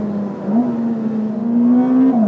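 A Ferrari engine pulls hard with a steady, loud drone, its pitch stepping up through gear changes as it accelerates in a first full-throttle acceleration, with no voices, during a drive in the Modena area of Italy.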